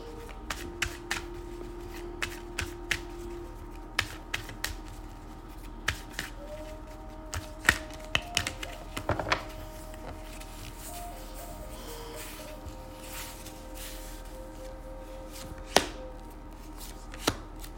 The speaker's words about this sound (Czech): Já už se dívám na vaše fotky, míchám u toho karty a my se teda podíváme, co nám Tarot poví o vás dvou.